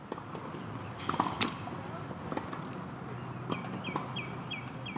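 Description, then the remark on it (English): Tennis balls being struck back and forth at a distance, heard in the evening through an open apartment window in Dublin, Ireland; sharp pops arrive every second or so over a low outdoor hum, with faint birds chirping near the end. “The soothing, rhythmic sounds of tennis.”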